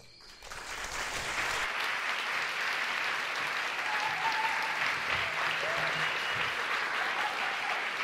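An audience claps steadily to welcome a masked guest artist, a dense wash of applause that swells in within the first second and holds at a full, even level to the end, with a faint murmur underneath.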